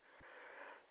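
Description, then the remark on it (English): A dog sniffs, a soft breathy rush of air lasting under a second, fairly quiet with no voices. “Sorry about my dog there.”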